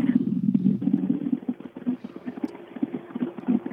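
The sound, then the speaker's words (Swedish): The engine of rally car number 10 rumbles steadily with a throbbing, pulsing growl, moderately loud, with no voices over it. “Bil nummer 10 här.”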